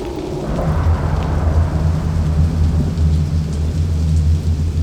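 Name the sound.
rain with thunder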